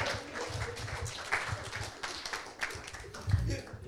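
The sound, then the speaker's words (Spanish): Scattered clapping rises from a lively crowd, irregular hand claps mixed with murmuring voices and a few louder bursts over roughly four seconds. “Dele el aplauso al que vive.”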